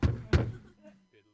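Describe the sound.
Two heavy, booming bangs land in quick succession, like fists pounding on a wooden door, followed by a faint voice murmuring briefly afterward.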